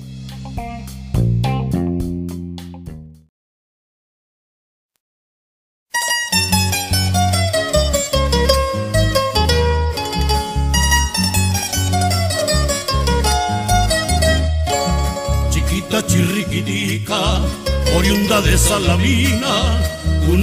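A Colombian folk song plays loudly: a short opening phrase, a few seconds of silence, then the full tune returns with a busy melody over a steady, driving rhythm.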